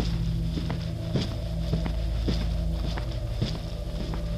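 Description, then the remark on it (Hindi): Steady footsteps at an even walking pace, about six distinct thuds, of someone coming inside through the front door, over a constant low hum. No one speaks. “तभी बाहर का दरवाज़ा खुलने की आवाज़ आई हम सब ने किसी के कदमों की आवाज़ सुनी जैसे कोई अंदर आया है”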